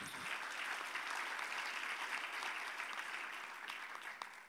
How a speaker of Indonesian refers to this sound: Dengan tepuk tangan bagi Tuhan kita Yesus